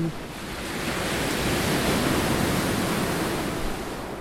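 Steady roar of surf washing onto a beach, a dense hiss of sea water that swells slightly and then holds, fairly loud, with no voices.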